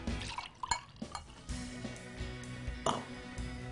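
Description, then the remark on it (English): Sangria pours into a glass with a steady splashing trickle and a few brief clinks and drips, no voices over it. “Um, but I like to do it with a sangria spritzer, if you will. So you just take some sangria”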